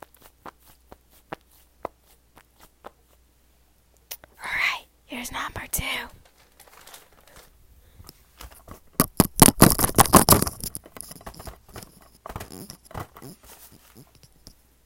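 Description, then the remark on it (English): A squishy stress ball is squeezed repeatedly, giving a dense run of soft crackling, squelching bursts after a brief whisper, preceded by a few faint scattered ticks. “Lastly, we got some different squishy balls.”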